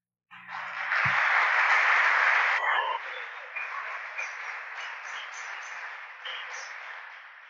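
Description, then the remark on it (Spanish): A church audience, urged by the pastor to applaud the Lord, bursts into loud, dense applause that holds steady for a couple of seconds, then drops to a softer, thinning patter of scattered claps that lingers to the end. “Aplauda al Señor entonces.”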